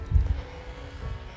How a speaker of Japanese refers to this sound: ちょっとなんか草刈りをしている音が結構大きく聞こえているかもしれません